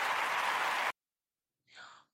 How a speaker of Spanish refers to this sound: Aplausos para Pitita. Ahí están los aplausos para